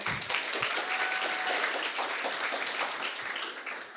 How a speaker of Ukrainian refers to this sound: Оплески, оплески.